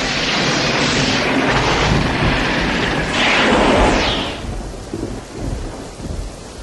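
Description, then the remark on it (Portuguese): Heavy rain roars steadily while a loud rumble of thunder swells and crackles through the middle, then eases back to a dense wash of falling rain. “tá chovendo, né? Tá tendo uns relâmpagos, trovão pra cacete e tudo mais.”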